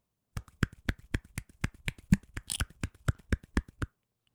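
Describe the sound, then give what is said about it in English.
One hand clapping on its own: a quick, steady run of sharp, dry slaps, more than a dozen in about three seconds, with faint softer taps between them and no voices. “This is the sound of one hand clapping.”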